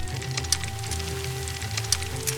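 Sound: heavy rain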